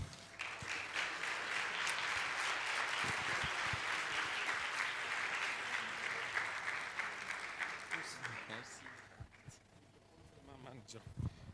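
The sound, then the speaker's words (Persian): Sustained applause from a crowd thanking people who worked on a project, a dense steady clatter of many hands clapping for about nine seconds, then thinning out into scattered claps as voices begin to talk. “تشویق ویژه بکنید واقعا دستشون در نکنه زحمت کشیدن”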